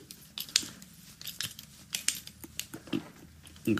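A cork being worked out of a bottle of rosé wine: a run of sharp, irregular clicks, creaks and scrapes from the corkscrew, with a fuller squeak right at the end. No one speaks.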